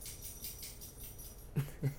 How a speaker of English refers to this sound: That's my dog, Cooper.